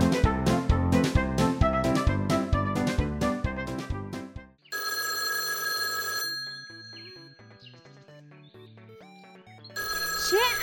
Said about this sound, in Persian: عجیب کی تلفن اینجا رو داره؟ نمیدونم بذار جواب بدم الو